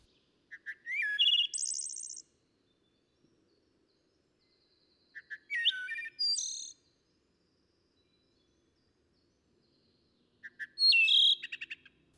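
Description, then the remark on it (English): A songbird at the edge of an orchard adjoining a wood sings three separate bursts of song, each opening with a few quick notes that speed up into a bright, dense trill, with pauses of silence between them. “Such a flood of it, such copiousness, such long, trilling, accelerating preludes, such sudden, ecstatic overtures would have intoxicated the dullest ear.”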